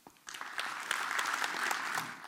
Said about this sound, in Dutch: dit was het inleidende gedeelte. Graag een hartelijk applaus